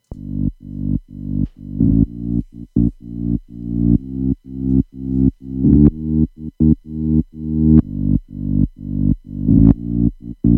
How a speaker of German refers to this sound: Mit am wichtigsten ist jetzt noch der Bass, der eine ganz simple Melodie spielt, nämlich die hier.